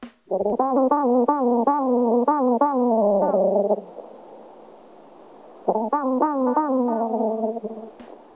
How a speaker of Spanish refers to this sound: Este sonido viene de A, una termita, B, una avispa o C, un mosquito. La respuesta correcta es B, una avispa bracónida, de nombre científico Cotesia marginiventris.